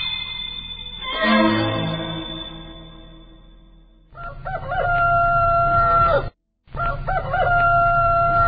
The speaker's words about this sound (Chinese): 原来我讨厌死了邻居家养的大公鸡。